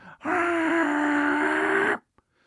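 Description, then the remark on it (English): A single loud, sustained voiced tone held steadily for almost two seconds, a person vocally imitating the ringing alert a coffee machine makes when it goes off, ending abruptly with a small click afterward. “I put the cup under it at night, went to bed, woke up, hit the thing, and it makes the ring sound too when it goes off. It goes”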